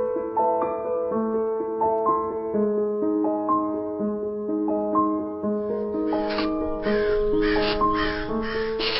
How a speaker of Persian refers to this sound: پاییز یعنی صدای کلاقا یعنی قارقارشون ساعت هفت صبح درست وقتی که شب قبلش بارون اومده و بوی خاک نم خورده پیچیده همه جا